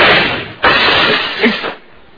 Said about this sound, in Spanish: ¡Caray! Me dispararon por la ventana y rompieron los vidrios.